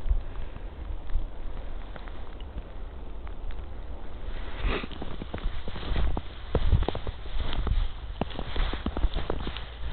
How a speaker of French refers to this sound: on va encore entendre, c'est sur un chêne d'Amérique, on entend cette neige tomber, qui lui aussi il a gardé ses feuilles.